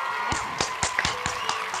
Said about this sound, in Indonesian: Iya, jangan lupa ya tepuk tangan yang meriah bersama teriak-teriakan orang ya.